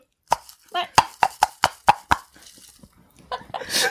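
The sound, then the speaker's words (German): About eight hollow, woody knocks of coconut shell halves, used as drinking cups, struck together in a toast in a quick, slightly uneven run, fairly loud, followed by a brief spoken word and some rustling. “Wir haben gerade aus Kokosschalenhälften ein Drink geäxt und äh, da man damit halt nicht anstoßen kann, haben wir es nachgeholt.”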